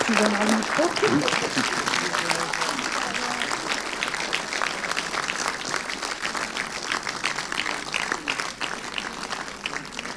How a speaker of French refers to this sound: Pardon. Euh, merci, euh, merci pour les applaudissements